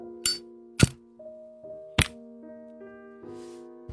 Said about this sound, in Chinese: 对于这个要求，国王不愿意说一个不字，所以士兵就取出了他打火匣，擦了几下火。